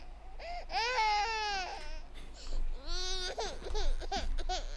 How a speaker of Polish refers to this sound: Z jednej z chałup obok słyszycie głośny płacz dziecka